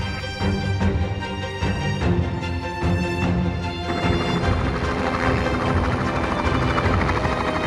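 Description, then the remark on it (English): A helicopter's rotor thumps steadily and loudly, the dense whine and chop of the engine filling the scene as it takes off or lands at a helicopter company's base in Abbotsford, British Columbia, Canada, with no one speaking. “Thank you for joining us here at BC Helicopters in beautiful Abbotsford, British Columbia, where you will hear some helicopters taking off and landing.”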